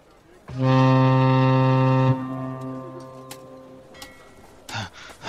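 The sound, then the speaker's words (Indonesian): A ship's horn sounds one loud, deep, sustained blast lasting about a second and a half as the ship is about to depart, its tone ringing on briefly after it stops. Background noise and faint activity follow. “kapal mau berangkat. Ayo dah buruan yuk.”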